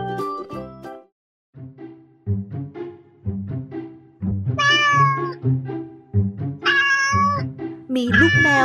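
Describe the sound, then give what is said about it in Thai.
A kitten meows three times, high and drawn out, over a steady bouncing backdrop of repeated low notes, in a children's story about a little orange kitten named Daisy; the meows come every second or two and sit clearly above the accompaniment. “มีชื่อเรื่องว่า เจ้าเหมียวน้อย”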